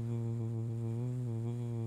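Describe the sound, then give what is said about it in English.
A voice hums a low, steady drone without a break, imitating the even hum of a car engine while driving on the highway with the windows closed. It holds a constant level from start to finish. “that's the sound of my car. That's my impre- impression of a car.”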